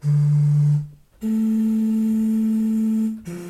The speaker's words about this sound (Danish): fuldstændig samme strategi har jeg brugt på en, jeg havde en, en kokosnød, som jeg også på en eller anden måde kunne få en, en tone ud af. Og den lød sådan her.